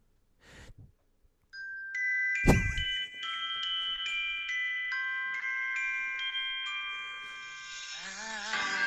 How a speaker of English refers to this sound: It's Christmas time. Those are sleigh bells.